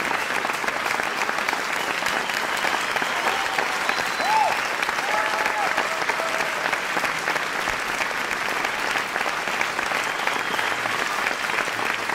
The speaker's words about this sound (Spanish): Aplausos y más aplausos, y esto es lo bonito de, cuando se canta y cuando lo se hace con ilusión.